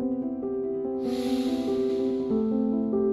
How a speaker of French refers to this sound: Prends le temps d'une respiration. Inspire.